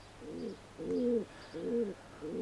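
Soft, throaty cooing of a feral pigeon repeats in four low, rolling phrases with short pauses between, steady, with a faint background hum and no voices.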